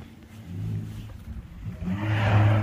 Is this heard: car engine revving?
yes